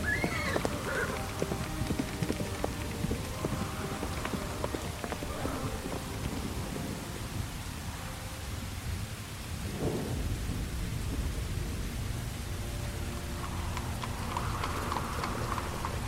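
Steady clip-clop of horse hooves pulling a carriage, a continuous rhythmic trot under a low rumble of thunder and falling rain, with no voices.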